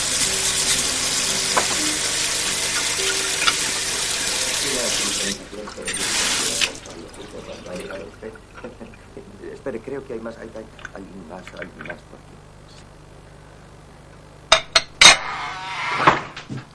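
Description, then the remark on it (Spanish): A woman washes dishes at the sink: water runs steadily from a tap for several seconds, then stops, followed by quiet clinks and scrapes of dishes and cutlery, ending in a few sharp clatters of plates being set down. “Alicia friega.”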